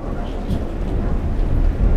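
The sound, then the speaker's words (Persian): A deep, continuous rumble of thunder rolls on with steady rain hissing underneath, fairly loud, swelling slightly toward the end, after lightning flashes in the sky. “کمی بعد آسمون برق زد و رد قرید و بارون بارید.”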